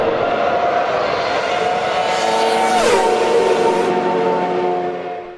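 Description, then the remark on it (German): A Formula 1 race car engine screams at a high, steady pitch, then drops sharply midway through, as if downshifting or passing, before holding a lower whine. Loud throughout, with no talking. “Die große Rückkehr der Formel 1 nach Imola und was für ein Rennen.”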